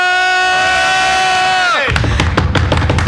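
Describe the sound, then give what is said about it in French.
A steady, sustained tonal note holds, then cuts off abruptly as a group of people erupts into loud cheering and whooping, with bursts of shouts and clapping-like crackle continuing to the end. “Ah oui, bah ils sont là, vous les entendez.”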